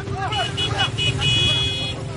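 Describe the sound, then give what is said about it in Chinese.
More than 500 motorcycle engines roar in a loud, continuous low rumble as they gather at the Hexi roundabout before dawn on 26 August 2015, with short horn toots and high warbling tones rising over it. Muffled voices mingle with the din. “汇集了超过五百辆摩托车，刺耳的马达声开始传向交通巷，那是通往清水河草场的必经之路。”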